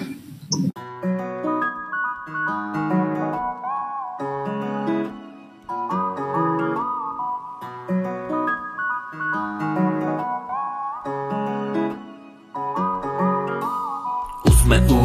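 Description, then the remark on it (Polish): An instrumental intro to a rap from Gdynia, made for the eighth birthday of the Idź Pod Prąd television channel: a bright, repeating synth melody loops in short phrases over a steady bass line, ending in a sudden loud burst, with no voices. “Mamy też niespodziankę. E, muzyczną.”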